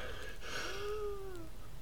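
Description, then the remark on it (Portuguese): A thin, whistling wheeze from a person with lingering after-effects of Covid rises and gently falls in pitch during a single breath, fairly soft, with no talking and a steady background hiss underneath. “Agora deve ter dado para ouvir. Tipo um, um assobio, pá, que estranho.”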